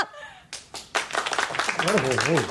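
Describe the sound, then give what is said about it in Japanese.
A scattered round of hand clapping from a small audience voting by applause that the dollar-yen rate will rise right after an announcement, a brief burst of uneven claps that overlaps with a man speaking over it toward the end. “はい、ドル円が発表直後に上がると思われる方、拍手で。”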